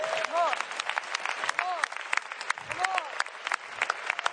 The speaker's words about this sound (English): You're supposed to clap with me. That's on you right there.